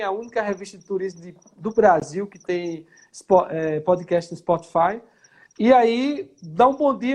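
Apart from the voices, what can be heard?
crickets chirping outdoors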